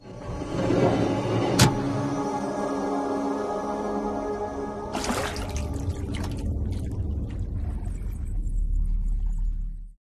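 A cinematic watery sound effect of a water tentacle rising out of water: murky, bubbling rumble with a sharp splash-like hit early on, a sudden surging rush of water halfway through, then a deep churning rumble that fades out.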